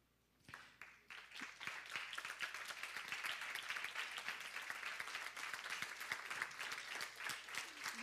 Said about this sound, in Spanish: Y vamos a agradecer a esa gran mujer llamada mamá. Y quiero que en esta tarde, te pongas de pie y quiero que le des un aplauso a tu mamá.